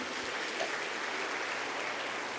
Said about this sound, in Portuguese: Só se você crê na sua oração, aplauda o nome de Jesus.